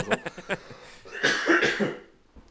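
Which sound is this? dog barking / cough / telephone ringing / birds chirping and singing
cough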